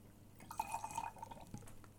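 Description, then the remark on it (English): A quick squirt of lime juice splashes into a round glass, a brief wet trickle lasting under a second, fairly quiet, with no voices. “We're going to put a little lime juice in it.”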